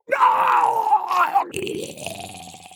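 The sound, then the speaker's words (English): A male voice actor performs a drawn-out, wet, gurgling death groan, made extra juicy, squishy and gurgly, strained and loud for over a second, then breaking into a lower, rattling, bubbly choke that fades out. “They can be fun when the director says to make it extra juicy and squishy and gurgly.”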